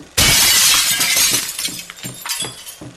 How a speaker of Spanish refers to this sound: La cámara rompe una ventana.